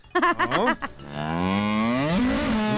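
A cow lets out a long, loud, drawn-out moo, sustained for about two seconds, preceded by a brief burst of shorter vocal grunts.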